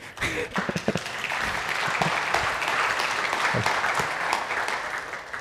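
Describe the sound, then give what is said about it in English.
Steady audience applause at a church gathering as women are invited up to the front, a dense wash of many hands clapping at a fairly even loudness throughout, with a few sharper individual claps standing out near the start. “More, the, more nervous when you clap.”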